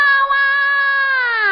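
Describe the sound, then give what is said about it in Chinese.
A hungry baby, left at someone's door, cries in one long, loud, high-pitched wail that holds steady and then bends downward at the end, with no other voices. “宝宝不哭，喂，谁把宝宝放在这儿了？宝宝饿坏了”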